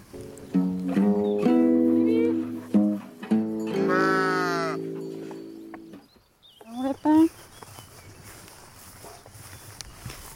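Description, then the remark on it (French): A farm flock of merino ewes, raised for wool, bleats loudly, several wavering calls overlapping for about six seconds, then a couple of shorter bleats over soft rustling. “Et du coup, j'élève des brebis, des mérinos pour la laine.”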